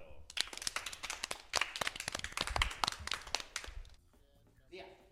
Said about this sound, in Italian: e gli facciamo un grande applauso.